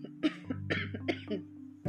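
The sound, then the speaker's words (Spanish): A speaker gives a series of short, raspy coughs in quick, uneven succession, not loud, over a steady low hum, with no talking. “perdón, tengo un poco de tos”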